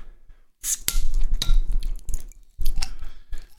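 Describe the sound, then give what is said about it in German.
A bottle of Berliner Kindl Jubiläums Pilsener beer being opened: sharp clicks and a pop of the cap, followed by a hissing, fizzing rush and some glassy clinks, fairly loud with no talking. “So, schön authentisches Öffnungsgeräusch.”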